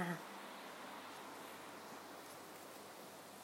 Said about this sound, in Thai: ฝนตก ฝนตกแบบ เนี่ย ฝนตกเสียงฝนนะ ที่ที่สมุยอะฝนตกอย่างหนักเลย เพราะว่าเห็นไหมเขาบอกว่าพายุมา